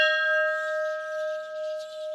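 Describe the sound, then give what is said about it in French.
A large bell in the historic zone of the Albert Schweitzer museum, once used for religious services, rings out once and hangs in a long, sustained tone that slowly wavers and pulses as it resonates, with no voices. “on arpente euh, la zone historique du musée Albert euh, Schweitzer et on tombe sur la cloche. Est-ce qu'elle fonctionne encore, cette cloche Alors, elle fonctionne encore.”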